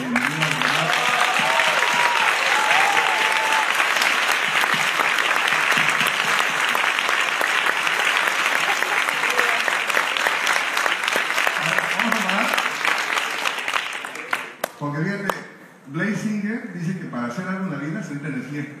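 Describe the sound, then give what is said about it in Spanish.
Sustained audience applause for the people attending for the first time, a dense, loud wash of clapping lasting about fifteen seconds before tapering off, after which a man begins speaking. “Si pueden poner de pie, por favor, que es tener primer este, Y vamos a darles un fuerte aplauso”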